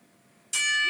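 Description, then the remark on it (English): A single loud bell strike, part of a ten bell salute, rings out suddenly after a quiet moment, its bright metallic tone sustaining without fading. No one speaks. “But uh, if you don't mind, um, uh, ten bell salute.”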